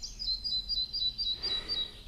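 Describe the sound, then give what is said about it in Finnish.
A red-breasted flycatcher sings a rapid, repeating series of thin, high-pitched notes in an even rhythm, clear against a quiet forest background with faint low rumble. “Viikon luontoääni: Pikkusieppo”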